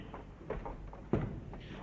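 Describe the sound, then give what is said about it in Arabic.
A door opens with a single solid clunk as someone lets themselves in, preceded by a few soft shuffling knocks, otherwise quiet with no talking. “هذا هو الباب سأسمح لنفسي بالدخول قضاء لواجبي”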